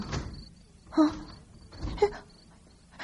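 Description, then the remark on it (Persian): A courtyard door opens with two short creaky, scraping bursts about a second apart, followed by a low thud, amid otherwise quiet. “شما هم شنیدین صدای در حیات بود”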